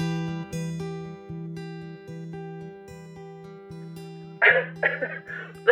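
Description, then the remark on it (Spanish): A steady, droning electronic tone hums throughout, then near the end a loud burst of sneezes breaks in, followed by another sharp one right at the finish. “Además de todos tengo estornudos.”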